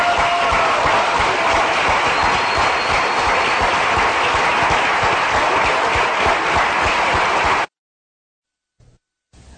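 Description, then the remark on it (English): An audience applauds both speakers after a debate on creation and evolution, steadily for about seven seconds, a dense wash of many hands clapping at once, then the sound cuts off abruptly into near silence. “Hey, both, both speakers have done an outstanding job. Let's hear it for both of them, huh?”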